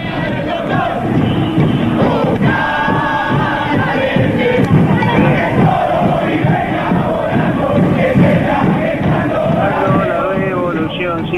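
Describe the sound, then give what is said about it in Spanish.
A large crowd chants a song of the Partido Intransigente political party in unison, voices loud and dense with a steady rhythmic pulse, filling the whole stretch like a rally gathering. “Yo apuesto plata plata que cantaste esta canción y seguramente hay oyentes que, y oyentas que también la cantaron si militaron en el PI.”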